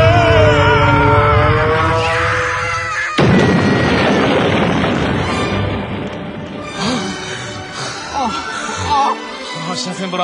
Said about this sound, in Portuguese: Me pareceu uma queda de avião e não de helicóptero.